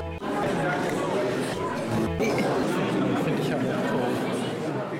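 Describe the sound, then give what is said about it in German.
Steady, dense murmur of many people chatting at once at an art exhibition opening in the Reformed church in Iserlohn, a reverberant continuous crowd babble with no single voice standing out, holding at an even level throughout. “Wie Sie an den Hintergrundgeräuschen hören, bin ich unterwegs. Und zwar auf einer Vernissage in der reformierten Kirche in Iserlohn.”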